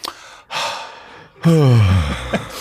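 A long, breathy yawn: a deep inhale followed by a drawn-out, voiced exhale that slides downward in pitch, heard alone.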